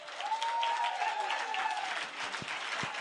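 An audience applauds steadily, a dense wash of clapping hands with a faint tonal hum running through it, holding at a fairly even level for a few seconds.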